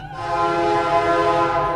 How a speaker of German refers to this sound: I could see the train coming slowly towards me, lighting up the trees. Als man den Zug, von dem der Mann spricht, dann tatsächlich hört, leuchten seine Lichter kurz in der Baracke auf. Der Kronleuchter wackelt.